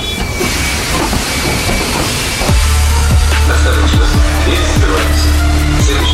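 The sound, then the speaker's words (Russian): A metro train pulls away from a station: a broad hiss and rumble giving way to a steady low hum with periodic wheel-joint clunks gradually spacing out as it gets underway, loud, no talking. “пока вы стоите в пробках, мы начинаем движение.”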